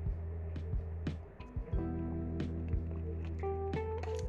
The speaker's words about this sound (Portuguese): deixa eu tomar uma água aqui porque falar deixa a gente seco.